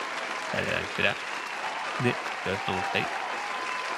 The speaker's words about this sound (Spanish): Acá tenés que ponerte un aplausito. Aplauso, pero con ovación, ¿eh? Aplauso posta.